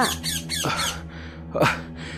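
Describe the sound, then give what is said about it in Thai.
A parrot squawks in a quick run of harsh, raspy calls, pauses, then lets out one more loud screech, with a steady low droning tone running underneath. “เจ้าหนกแก้วจึงทำเหมือนทุกครั้ง มันได้ร้องบอกกับชาวสวนว่า”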